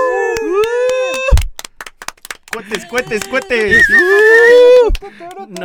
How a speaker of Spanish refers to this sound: No, saben el pedo que voy a tener para ecualizar esos ruidos. Sorry, tuve que chiflar.